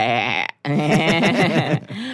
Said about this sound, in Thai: มันคือเสียงของแพะนั่นเองค่ะ